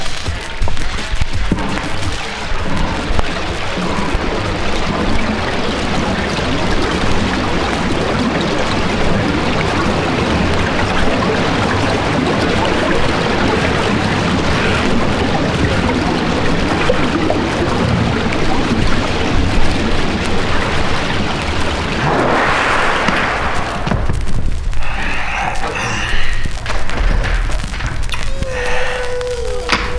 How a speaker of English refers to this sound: strange steam engine sound was the whale spinning its bubble net, followed by the burble of rising bubbles, and finally the net spinners spouting breath at the surface.